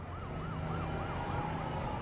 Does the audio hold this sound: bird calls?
no